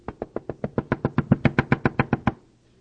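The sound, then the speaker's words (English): A rapid, steady run of about fifteen firm knocks on a door, evenly spaced, growing slightly louder midway before stopping abruptly into silence. “a knock comes on the door.”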